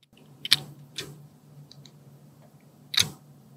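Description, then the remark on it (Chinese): Three sharp, bright clicks at uneven intervals as earphones are drawn into their case and lock in, with a faint low hum running underneath between them. “它是不是有一个卡榫的声音？”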